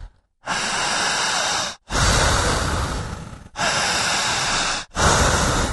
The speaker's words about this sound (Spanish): Dice la medicina, fuerte la respiración. Larga, escúchela, analícela.